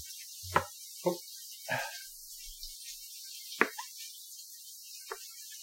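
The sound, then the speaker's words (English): Knife chopping potatoes into big, chunky cubes on a cutting board: about five sharp, irregularly spaced knocks with gaps between them, over a steady background hiss. No one speaks. “And then we'll move on to the chopping.”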